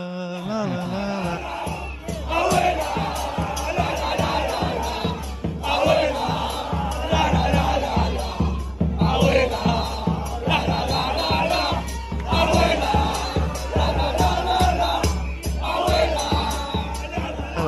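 A large crowd of football fans chants an Argentine song in loud unison, voices rising and falling over a steady rhythmic beat for the whole stretch.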